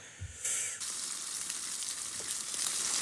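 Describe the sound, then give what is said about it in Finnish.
Steak sizzling on a grill over a full flame: a steady, bright hiss of frying fat with faint crackles and pops, continuous throughout and fairly loud, with no voices. “pihvin sihinää ja sislingiä otetaan. Tässä olisi yksi tunti tulossa nyt sitten. No, mutta Steak Grilling Sounds.”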